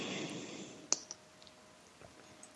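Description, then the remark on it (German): A bottle of Biberacher whisky from the Kinzig distillery being opened, heard as one sharp click followed by a softer second tick, then faint rustling with no talking. “Dann muss ich nochmal eine Flasche öffnen.”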